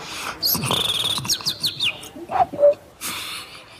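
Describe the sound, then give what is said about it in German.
A person whistles and chirps in imitation of a bird, a quick series of high, warbling tweets and short trills, with no talking. “Wir haben ja ein akustisches Format, deswegen mach uns doch, welche, bestimmter Vogel?”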